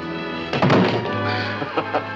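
A heavy, dull thud of a body slamming into a wooden door as someone tries to knock it down, followed a moment later by two lighter bumps; fairly loud over a low background hum.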